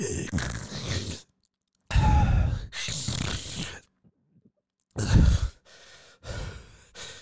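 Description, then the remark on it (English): A voice imitates a man's heavy, labored breathing as he sweats while sitting: a series of loud, rough breaths and sighs in uneven bursts, separated by brief silences. “he was sweating and breathing, um, just sitting there.”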